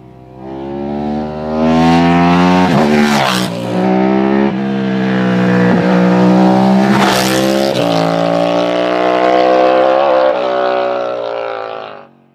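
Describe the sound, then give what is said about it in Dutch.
A motorcycle engine runs loud, its throaty harmonic drone rising and falling as the throttle is blipped and revved several times over about twelve seconds, with no talking. “Nu nog even genieten van het geluid, veronderstel ik? Ah ja, ik zal hem even opzetten.”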